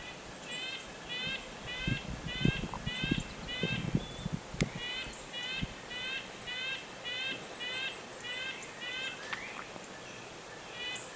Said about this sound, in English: yeah, that is the red-breasted nuthatch. Um, they they're really teeny. You know, they're they're uh, even slightly smaller than a black-capped chickadee uh, without, and they don't really have a long tail. They're very compact because they creep